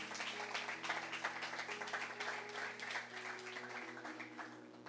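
Steady applause for the Lord Jesus at a church service, a dense wash of many hands clapping without pause for the whole stretch, with a sustained low musical drone humming underneath.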